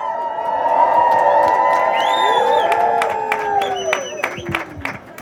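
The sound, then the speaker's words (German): A large protest crowd cheers and whoops loudly for several seconds, high shouts and whistles rising over a dense roar, with scattered claps standing out before the noise tapers off. “Einmal noch richtig laut, damit er uns auch hört, der Herr Bürgermeister.”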